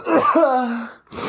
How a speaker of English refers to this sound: Bless you. Dude. Gesundheit.